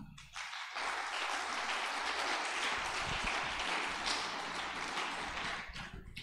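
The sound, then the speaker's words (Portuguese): A crowd breaks into steady applause for the Lord, a dense wash of clapping that rises quickly and holds at an even level for several seconds before starting to ease off. “Pode aplaudir o Senhor.”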